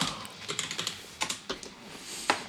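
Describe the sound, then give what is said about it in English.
Rapid clacking of a mechanical keyboard, irregular keystrokes in quick bursts with brief pauses, fairly crisp against a quiet background. “The clacking of a mechanical keyboard.”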